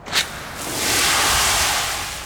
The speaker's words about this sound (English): I heard someone shout, They're going to use the water cannons! The police started to spray the protesters.